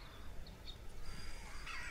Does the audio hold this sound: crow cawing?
yes